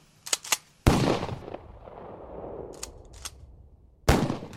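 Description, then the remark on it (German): Sharp gunshots crack out alone: two quick light pops, then a loud blast with a long echoing tail, a few faint pops, and another loud shot at the end, sounding like firecrackers, heard from a house at around 10 p.m. “Und gegen 10 Uhr abends hörte man aus dem Haus Geräusche, die ja, wie Knallkörper klangen.”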